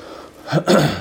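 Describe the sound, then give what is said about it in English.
A single sneeze bursts out, a short sharp intake followed by a loud, breathy explosion that trails off quickly, with no talking around it. “Bless you.”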